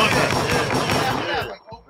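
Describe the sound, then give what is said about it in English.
A loud, dense burst of gunshot sound effects fires rapidly for about a second and a half, then cuts off abruptly into near silence, with a voice faintly mixed underneath. “That's that's gunshots for that, right there.”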